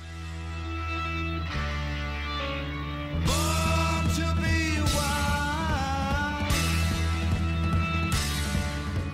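A loud rock song from a film soundtrack plays on its own: a steady driving band with heavy bass and guitars, a fuller burst of cymbals and drums about a third of the way in, and no voices.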